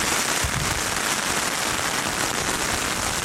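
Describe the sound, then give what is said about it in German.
Heavy rain pelts down outdoors in a dense, continuous crackling patter, loud and steady throughout with no voices. “Also ich weiß gerade nicht, wo ich am Platz bin, wo sowohl Empfang ist als auch kein schlimmer Regen meine Hose ist schon durch.”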